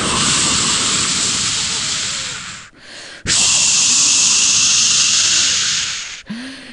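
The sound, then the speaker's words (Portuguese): A loud whoosh of whirlwind gusts, two long rushing blasts of wind with a short break between them and a brief tail at the end. “De repente, Deu-se um redemoinho.”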